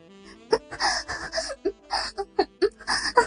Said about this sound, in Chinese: 在奢华的宾馆房间内，有着道不尽的风光旖旎。房间里充满着女孩的喘息和呻吟。